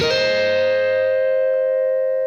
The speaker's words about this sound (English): We're just going to be doing some some little uh, embellishments here, and what we're going to start with is just barring the 12th fret of the E and the B string, and then hammering on to the 14th fret of the B string.